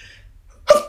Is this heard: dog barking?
no